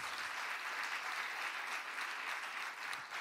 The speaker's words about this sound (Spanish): Y cuando te levante, denle un fuerte aplauso al rey.